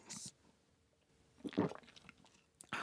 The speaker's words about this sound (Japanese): ああいい喉越しの音いただきましたちょっと意識しましたありがとうございますこれも素敵な音でございますね